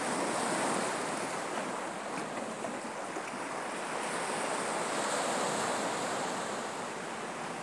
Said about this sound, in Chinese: 每一声海浪的声音，仿佛一样，它们又不同。去感受，去听见。